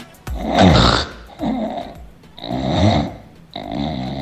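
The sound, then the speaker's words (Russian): An English bulldog snores loudly, four rough rattling snorts in a steady rhythm, each long wheezy inhale broken by brief pauses. “Нужно поточнее. Английский бульдог.”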